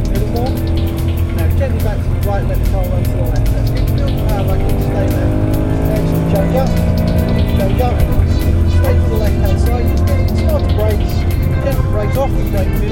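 A manual Mercedes-Benz C63 AMG Coupé Black Series engine drones steadily and loudly, its pitch rising and falling as the car accelerates, brakes and shifts gears through a continuous drive.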